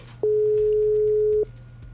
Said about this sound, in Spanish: Yo solo paré y marqué el WhatsApp. Ahí está.